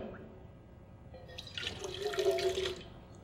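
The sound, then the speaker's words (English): A short, splashy gush of water poured out of a cup, swelling for about a second before trailing off, fairly quiet over faint background noise. “At that point, we're going to stop, take a cup of water, from the Pacific Ocean”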